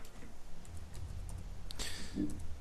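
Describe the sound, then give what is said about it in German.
A few light, quiet clicks of keys on a computer keyboard as the word 'Kekse' (cookies) is typed in, scattered irregularly over a low background hum, with no one speaking. “Uh, da bin ich sehr gespannt, was da kommt, wenn, ähm, wenn ich Kekse eingebe.”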